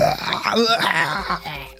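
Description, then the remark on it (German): A short, muffled scream from a single voice, strained and held back, with a wavering pitch that swells briefly before trailing off into a groan. “Oh Gott, ich kann, kann gar nicht so laut schreien.”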